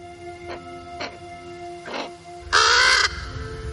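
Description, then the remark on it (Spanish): A crow caws several times in short, harsh bursts as it flies past and lands on a nearby branch, the last call loudest and longest, against a faint steady background hum. “Un cuervo con tres ojos pasa ante su cara y se posa en una rama cercana a él.”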